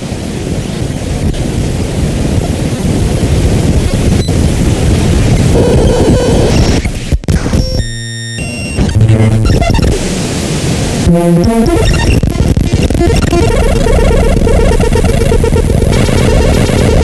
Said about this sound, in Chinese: 下面听到的声音就转换自一段普通的文件数据，但是听起来已经有些音乐的感觉了。